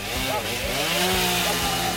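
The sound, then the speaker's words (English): A police officer's chainsaw roars steadily as it cuts down the door of a small cabin in a remote forest area about 1,200 kilometers northwest of Vancouver, its engine pitch rising and falling as it bites through wood, with a rough, grinding buzz filling the whole stretch. “A police dog strains at the leash as another officer then brandishes a chainsaw to cut down the door.”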